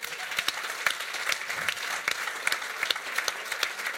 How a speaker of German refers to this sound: Hey, herzlichen Applaus auf einmal für die...